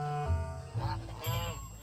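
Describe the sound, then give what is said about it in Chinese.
Three or four geese honk in the rain, recorded on a phone, in loud, nasal, overlapping calls, about three bursts in quick succession over a steady background hiss, with no one talking. “记得有一次是我用电动车载着我同学去运动场去开运动会，下着雨，心情比较郁闷，突然看到有几只鹅，就一下子就特别开心，就掏出手机开始录视频发朋友圈。”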